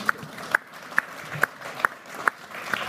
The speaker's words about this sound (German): Und die logische Konsequenz Applaus.